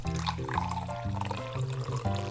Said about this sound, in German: Da schrauben wir einfach den Computer auf und dann gießen wir eine Flasche Desinfektionsmittel, Sagrotan oder sowas, direkt über den Prozessor. So.